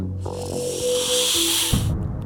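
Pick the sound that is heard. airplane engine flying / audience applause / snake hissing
snake hissing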